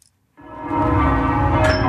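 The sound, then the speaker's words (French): Church bells of Valognes, in the Cotentin, ring out loudly after a brief silence, their overlapping metallic peals swelling into a dense, sustained clang of rich resonant tones. “entendez les cloches vallonnières”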